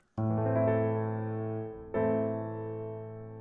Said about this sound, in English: To start with, let's listen to the sound of the A minor chord.